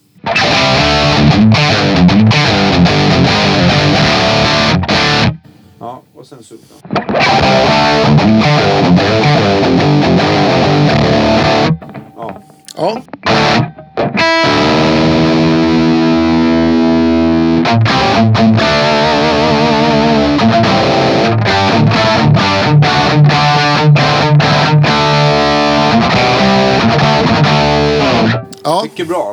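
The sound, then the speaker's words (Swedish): A loud, heavily distorted instrument riff through an effects unit set to the Folkesson preset plays in long, dense bursts, broken by a few brief pauses, with sustained notes and gritty overtones. “Och sen så ska vi ta eh, prova med lite olika presets som du har.”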